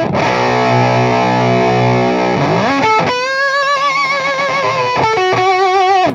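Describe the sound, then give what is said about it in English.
Heavily fuzzed electric guitar through an octave fuzz pedal similar to, but not quite, an Octavia, with a ring-modulated octave edge: a sustained buzzing note, then sliding bends and wavering held notes, loud and dense throughout with no voices. “You can hear that Octavia. It's not quite an Octavia, but it has a little bit of that ring modulation uh, on octave underneath it.”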